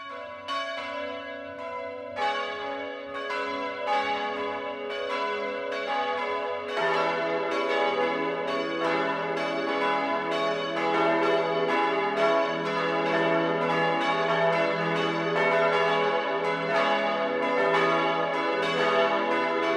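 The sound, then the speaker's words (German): Church bells of the Catholic parish church Heilige Dreifaltigkeit (Holy Trinity) in Hagelstadt, Upper Palatinate, Regensburg district, Germany, ring the 12 o'clock midday peal, overlapping rich metallic tones swelling as more bells join after a few seconds, steady and loud with no voices. “Das Mittagsläuten kommt heute von der katholischen Pfarrkirche Heilige Dreifaltigkeit im oberpfälzischen Hagelstadt.”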